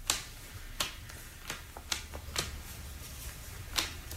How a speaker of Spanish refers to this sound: Y allí está echando las cartas.